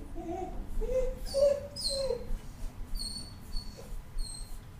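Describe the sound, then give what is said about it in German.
A dog whimpers and whines in a series of short, high-pitched cries, with thin squeaky tones trailing off toward the end over a low background rumble. “Ich nehme meinen Hund mit.”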